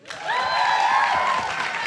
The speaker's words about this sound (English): It is so wonderful to see all of you here in the audience tonight. Let's give a round of applause to you for coming to the first ever Nod Awards.